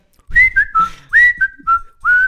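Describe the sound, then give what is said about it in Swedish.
A person whistles a short tune of about six clear notes, several sliding upward, fairly loud, with no talking. “ja, visst, han visslar”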